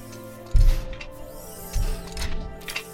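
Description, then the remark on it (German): A hydraulic machine stomps heavily around a house toward the listener, with two deep thudding steps and bursts of pneumatic hiss over a constant mechanical hum. No one speaks. “Ihr hört Maschinenhydraulik in eure Richtung stampfen um das Haus herum.”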